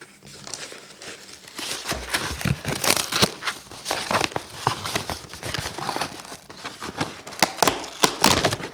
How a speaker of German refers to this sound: Dann packe ich mal das nächste aus